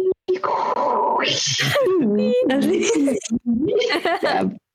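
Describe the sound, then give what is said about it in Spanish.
A person vocally mimics a dial-up modem handshake, a continuous run of warbling tones, buzzy screeches and hissy bursts with sliding pitch, loud for several seconds. “ya, pero el internet no era algo tan popular cuando yo estaba creciendo. A mí me tocó que no podías usar el teléfono cuando se conectabas.”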